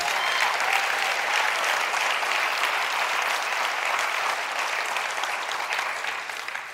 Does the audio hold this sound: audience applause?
yes